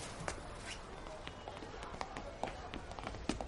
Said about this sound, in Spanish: En otro momento, Sion está en su tienda y el niño pequeño entra corriendo hasta él.